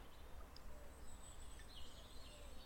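A European robin sings faint, thin, high warbling phrases among twisted seaside tree branches, barely rising above a steady low outdoor rumble, with no voices present.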